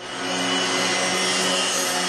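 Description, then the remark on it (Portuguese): A passing motorbike's engine drones steadily for a couple of seconds, a loud, buzzy hum with a fairly constant pitch and no voices over it. “Está aí o gajo da moto.”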